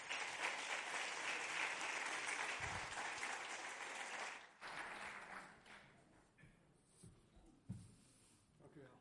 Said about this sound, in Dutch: En ik ben erg blij dat hij hier in ons midden is. Zullen we hem een hartelijk applaus geven?